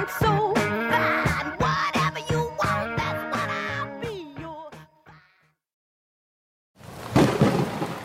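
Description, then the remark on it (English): A bright, percussive musical passage ends in a pause, then a loud burst of thunder rumbles in briefly at the very end, broad and noisy with no voices. “Our magic put a storm in the sky that has rendered the surface of our planet uninhabitable.”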